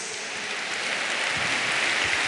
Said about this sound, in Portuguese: Em nome de Jesus, dá uma salva de palmas com o maior amor que você pode ter ao Senhor Jesus.